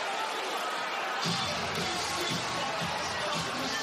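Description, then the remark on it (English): A stunned crowd at the Toyota Center basketball arena murmurs during a Rockets timeout after the visitors take a six-point fourth-quarter lead, a dense, steady wash of noise growing fuller and heavier a moment in, with no single voice standing out. “A stunned Toyota Center crowd has watched a seven-point fourth-quarter lead turn”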